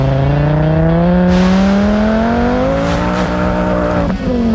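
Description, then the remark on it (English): A five-cylinder Rabbit race car doing a run at Pikes Peak International Raceway; its engine pulls hard and loud, pitch climbing steadily as it accelerates, with a brief dip near the end like a gear change. No talking. “All right, another one of my favorites from the Car Sound Vault, Jacob Light and his uh, five cylinder Rabbit doing a run at the Pikes Peak International Raceway.”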